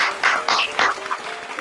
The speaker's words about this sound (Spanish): para la que todos tienen un gran aplauso, por favor.